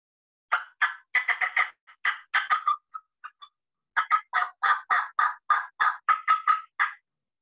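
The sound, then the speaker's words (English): A turkey hen's cutting call: loud, sharp clucks fired off in fast, irregular bursts, broken by a brief pause midway, then a second aggressive run of clipped notes. “And when you're when you're cutting, it's you know real aggressive broken rhythm like this.”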